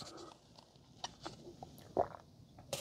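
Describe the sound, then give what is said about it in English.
Quiet sips and swallows of coffee in a car on a cold morning as the sun comes up, right at the microphone: a few soft, brief mouth clicks and gulps spaced across a couple of seconds, with a slightly louder swallow near the end and no talking. “Let's just, just, just take a second to just have a sip of coffee.”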